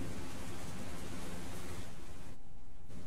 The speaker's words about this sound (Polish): Wiatr Deszcz pozostały gdzieś na dworze.